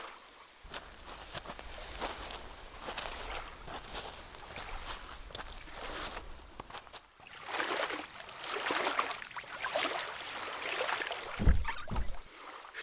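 Oars dip and pull through water in a steady rhythm as a boat is rowed out from a beach, with splashing strokes and a low hum underneath, then a few heavier knocks against the boat near the end.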